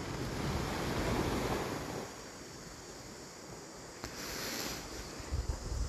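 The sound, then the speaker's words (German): Ocean surf washes up loudly, then recedes into a softer, steady hiss of water pulling back from the shore, with some wind noise buffeting the microphone and no voices. “Und die Welle kommt rein und die Welle kommt raus.”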